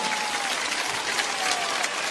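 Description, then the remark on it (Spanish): A large crowd of thousands applauds steadily in the Plaza de Toros bullring, a dense wash of clapping, loud and continuous for a couple of seconds with no talking over it. “Muchísimas gracias por su cariño, sus aplausos, su atención.”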